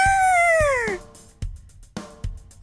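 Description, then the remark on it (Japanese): A person imitates a stray cat with a long, falling meow, followed by a few short, clipped mews, fairly loud with no other talking, reading aloud a written transcription of a stray cat's cries in Japanese. “ちょっと、やってみるね。にゃーにゃーにゃー。にゃにゃにゃにゃにゃ。にゃにゃにゃ。うーにゃーにゃー。”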